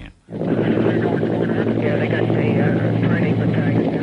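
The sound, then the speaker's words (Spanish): A helicopter drones steadily and loudly after a brief quiet start, its deep rotor thrum continuous throughout, with faint, indistinct voices mixed beneath the engine noise. “abandonábamos los territorios porque los helicópteros nos recogían al caer la noche para devolvernos a la seguridad del campamento base.”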